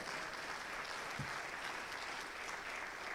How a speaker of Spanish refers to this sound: Dale un aplauso al rey.